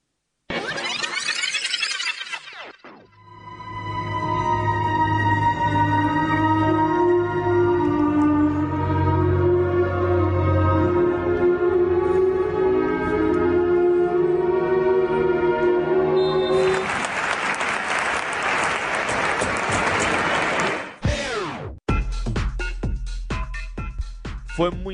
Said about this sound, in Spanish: Y si os parece, pues escuchamos cómo, cómo fue ese minuto de silencio, que la verdad que se me pusieron los pelos de punta.